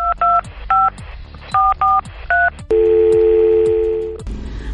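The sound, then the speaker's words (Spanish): A quick run of about seven touch-tone telephone beeps being dialed, each short and crisp, followed by a longer steady ringing tone on the line, placing the second listener call on the radio programme Coincidir. No one speaks. “Inmediatamente nos vamos con nuestra segunda llamada para escuchar quién nos está hablando y a quién sobre todo desea hacer llegar sus saludos.”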